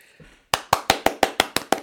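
clapping

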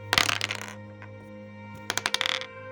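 dice being rolled

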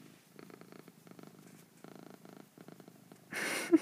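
cat purring

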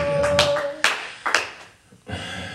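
audience clapping

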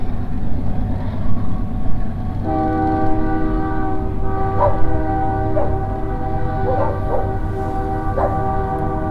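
train passing with horn

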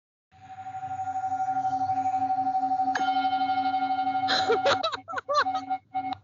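singing bowl ringing

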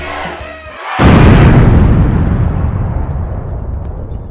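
explosion sound effect

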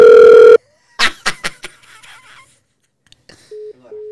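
phone call ringing

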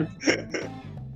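hiccup

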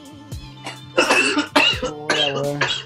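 coughing fit

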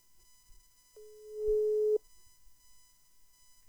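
telephone ringback tone

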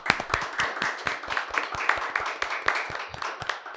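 studio applause

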